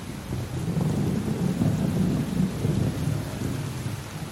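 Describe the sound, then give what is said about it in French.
A steady, heavy rain pours down while a deep, rolling rumble of thunder swells and lingers underneath, filling the whole stretch without any voices. “le tout en résistant au froid et à la neige qui s'abatte en orage.”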